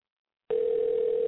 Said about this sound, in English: If he doesn't pick up soon, though, we're gonna have to hang up on him because uh, it's ringing too much.